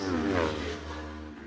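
Twin-cylinder Supertwins racing motorcycle engines roar loudly during a race, their harsh buzzing pitch climbing and then easing slightly as they pass, with a steady low rumble underneath and no talking.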